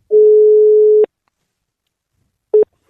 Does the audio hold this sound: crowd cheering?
no